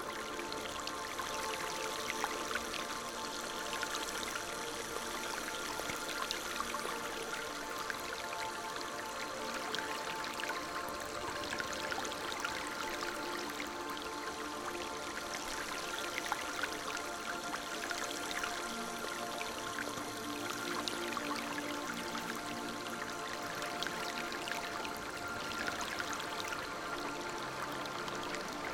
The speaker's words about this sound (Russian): Журчание воды из-под крана и шорох дождя за окном сливаются в мелодию.